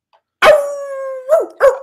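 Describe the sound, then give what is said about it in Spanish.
A French bulldog named Panda lets out one wavering howl lasting nearly a second, then follows with two short, sharp barks in quick succession. No one speaks. “con el aullido de panda, que es el único, este, el único pitbull francés, ¿no?”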